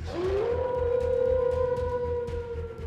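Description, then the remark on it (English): A single long wolf howl rises quickly, then holds a steady, mournful pitch for a few seconds before tapering, set over a low rumbling background with no talking. “What the hell? Wolves.”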